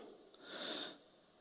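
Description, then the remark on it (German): A single sharp, deep breath drawn in to demonstrate breathing, a hissy airy inhale lasting about half a second, heard on its own with no talking. “Manche behandeln das Thema ja so, wie wenn man sagen würde, ja, atmen geht so”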